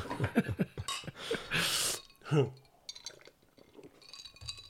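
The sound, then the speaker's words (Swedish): Glasses clink together in a toast, a few light, bright chinks, with a brief liquid swish and people talking around them. “Skål på dig. Skål.”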